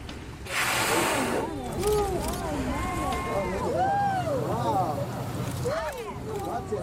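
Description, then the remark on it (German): The motor of an open speedboat carrying eleven passengers on a tour roars steadily under heavy wind rush, a loud, continuous wash of noise, with voices talking faintly through it. “entscheide ich mich für eine Tour in einem offenen Speedboot mit elf Passagieren, einmal mehr eingedeckt in dicke Anzüge gegen den Fahrtwind, ist das Boot voll besetzt und die Fahrt geht los.”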